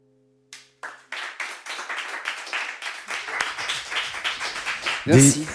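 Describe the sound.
Audience applause after a live music performance at a La Villette session rises from a few scattered claps into a steady, dense round of clapping, continuing at a fairly even level until a voice starts speaking over it at the end.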